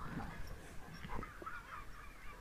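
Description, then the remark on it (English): Gulls call repeatedly over a tip beside a canal, harsh honking cries overlapping one another against a steady outdoor background hum, with no one speaking. “The nodding people move past as they stare at me, staring at gulls over a tip on the side of a canal.”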